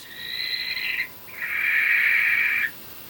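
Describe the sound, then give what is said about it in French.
Two high, drawn-out calls from a barn owl flying at night: a thinner cry of about a second, then a brief pause and a longer, harsher, hissing screech, with no voices. “Une bestiole qui ulule la nuit dans les airs sans que je puisse entendre ses battements d'ailes, c'est forcément une chouette effraie.”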